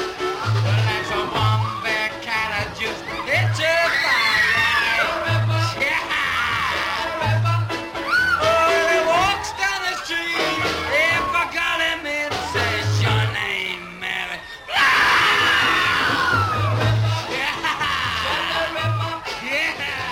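A loud live rock band recording, with a steady thumping beat, wailing, screaming vocals and crowd-like noise filling the mix throughout, surging louder near the end.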